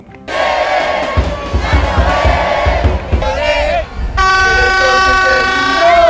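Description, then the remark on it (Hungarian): A loud street crowd in Buenos Aires celebrates Argentina's win at the football World Cup in Qatar, cheering and chanting together, and a long, steady horn blast comes in during the second half and rings over the roar. “Így ünnepelte Buenos Aires Argentina győzelmét a Katari foci VB-n.”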